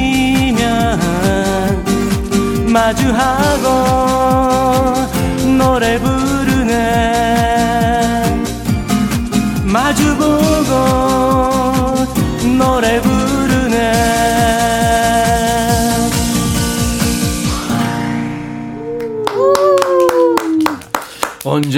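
A Korean pop song plays loudly and clearly, a sung vocal line riding a steady beat and full backing band before the music drops away near the end, leaving a brief final vocal phrase.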